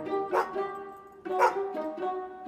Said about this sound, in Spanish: Oh no, es el perro de las caras de Belmez. Ya tuvieron un expediente sancionador por tenencia de animales potencialmente peligrosos.